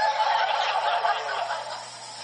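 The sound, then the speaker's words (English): A voice imitates chirping birds in a fast, busy warble, fairly loud, running for a couple of seconds before tapering off slightly. “But you, oh, you talk to the birds. Tweet, tweet, tweet, tweet. Like that.”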